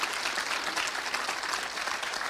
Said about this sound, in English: Please somebody clap your hands.